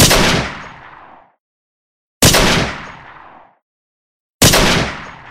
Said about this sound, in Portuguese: Ela foi atingida por disparos feitos pela tropa de choque do exército que estava no local.